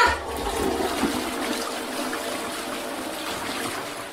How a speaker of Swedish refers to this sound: Spola bort henne bara. Spola!